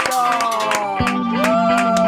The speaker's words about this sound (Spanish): Vamos. Vamos a el aplauso.